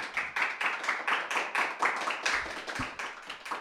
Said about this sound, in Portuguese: Uh, uma salva de palmas para o Ricardo Amorim. É cá.